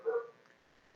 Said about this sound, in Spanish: Perdón por el ruido, El perrito de al lado está loquillo.